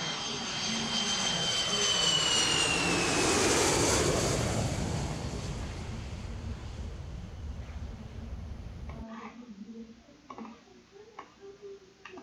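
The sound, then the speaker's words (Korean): A jet airplane takes off: a loud rushing engine roar swells over the first few seconds with a high whining tone sliding downward, then fades away, leaving faint ticking sounds at the end. “본격적으로 저희 궤도 이탈 여섯 번째 비행 이륙합니다.”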